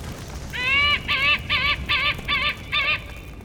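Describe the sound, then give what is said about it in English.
A white-tailed hawk gives a run of six rapid, nasal, slightly bleating calls in an even rhythm, fairly loud, over a faint background hiss with no talking. “Otherwise, the handsome white tailed hawk is a shy bird of prey, staying a good distance from admiring observers.”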